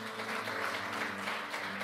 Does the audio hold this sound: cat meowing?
no